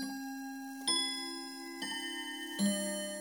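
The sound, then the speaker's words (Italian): A clock ticks slowly and steadily, three distinct ticks under a sustained, ringing mechanical tone, fairly quiet with no voices. “Modellini di mulino a vento, orologi con meccanismi complicatissimi e meravigliose meridiane.”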